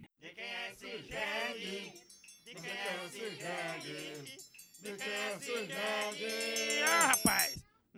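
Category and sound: animal, donkey braying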